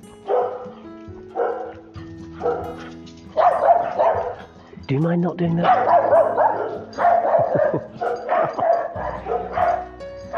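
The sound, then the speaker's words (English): A dog barks repeatedly in short bursts, with a few higher yips mixed in, while a person speaks over the barking. “we're talking about getting another dog. We, we can't. can't. You get one that does that.”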